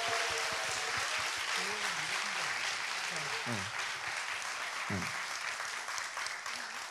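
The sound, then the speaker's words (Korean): Sustained audience applause, requested to wish a company great success: a dense steady wash of clapping that holds loud for about seven seconds, with a few voices cheering and calling out underneath before it begins to fade. “자, 우리 이 세계 기업 대박나라고 여러분 큰 박수 부탁드리겠습니다.”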